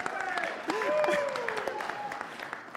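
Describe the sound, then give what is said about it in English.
Light, scattered audience applause, a few hands clapping at an uneven pace, with voices murmuring and talking over it throughout. “Well, that was that, that was minimum applause though.”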